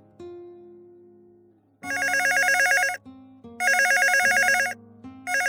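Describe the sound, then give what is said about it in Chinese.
A crisp telephone bell rings in repeated bursts, each about a second long with brief pauses between, its bright tone rapidly trembling over a faint low hum in the background. “就在程晓东还在想着以往的事情时，一阵清脆的电话铃声打断了他的思绪，让他又回过了神儿。”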